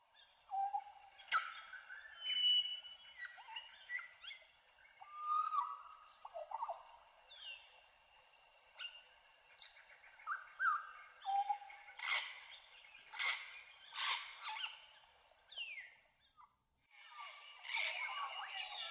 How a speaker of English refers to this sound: The bird for today is the African grey parrot.